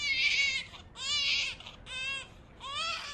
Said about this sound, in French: Calmez-vous, dit Santa. Ce n'est pas un crapaud, c'est simplement le cri d'un nouveau-né. De loin, les lutins entrevirent un petit être emmitouflé dans un landau.